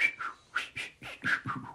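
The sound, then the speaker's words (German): A voice imitates whistling with a quick run of short, breathy, chirping whistle notes, about seven in under two seconds, fairly soft, with no talking, imitating a man made up like a mime who fiddled with balloons and whistled constantly. “und das krasseste war dann, dann kam so ein Typ, der war so pantomime-mäßig geschminkt, äh, hantierte so mit Luftballons rum und war die ganze Zeit so am Pfeifen, so.”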